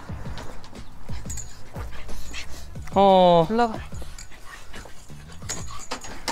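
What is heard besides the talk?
dog whimpering and panting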